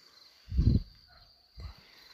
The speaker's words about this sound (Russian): Слышите, как сверчки. Я даже не знаю, как эти насекомые называют, цикады.